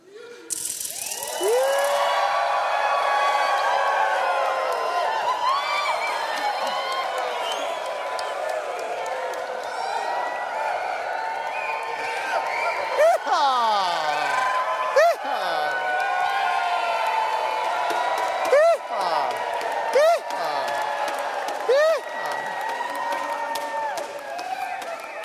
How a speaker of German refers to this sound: Lass uns doch aufstehen und einfach mal versuchen, laut zu jubeln.